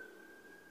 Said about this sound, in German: aber hier könnt ihr die, die Polizei hören.